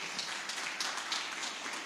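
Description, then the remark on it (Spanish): An audience applauds steadily to greet viewers watching on screen, many hands clapping together in a dense, even patter that holds at a moderate level for about two seconds, with no voices over it. “Y nosotros que estamos aquí, ¿por qué no saludamos a aquellos que están del otro lado, del otro lado de la pantalla con un fuerte aplauso para aquellos que nos ven?”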